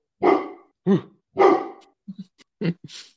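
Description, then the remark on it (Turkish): A dog named Margot barks three times, loud, at people walking by outside, with short pauses between, then trails off into a few quieter clipped yips and a soft huff at the end. “Yok ya dışarıdan insanlar yürüyor onlara havlıyorum.”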